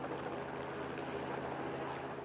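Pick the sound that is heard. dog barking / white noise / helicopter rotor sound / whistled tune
helicopter rotor sound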